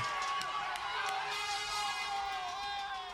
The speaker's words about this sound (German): Und Hunderttausende Italiener feiern jubelnd in den Straßen.